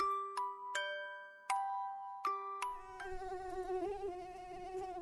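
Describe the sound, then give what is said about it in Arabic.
A few bright chime-like tones ring out, then a high-pitched mosquito whine takes over, buzzing steadily with a slightly wavering pitch until the end, as a mosquito is shut in a room with someone trying to sleep. No one speaks. “بس على حظنا منكون محبوسين بالغرفة مع ناموسة المقاومة غير مجدية بس منجرب وبالأخير نستسلم”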